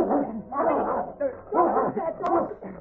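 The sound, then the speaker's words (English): A tied-up dog barks and whimpers at a man who has come toward the house from the corral, a run of excited yelps and whines in quick, uneven bursts that keep going for a few seconds; from The Lone Ranger radio drama. “Barking Dog”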